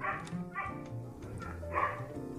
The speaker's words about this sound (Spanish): escucharon ese perro? espero que no lo hayan escuchado, porque nada se escucha menos profesional que un perro en un podcast.